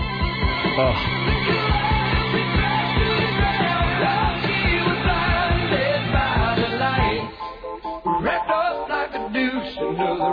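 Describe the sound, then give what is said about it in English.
A dated-sounding 1970s pop rock song plays loudly with a steady drum beat, sung vocals and full band backing, shifting to a sparser, more broken section near the end. “Hey, check that 70s sound. You're right, this sounds painfully dated.”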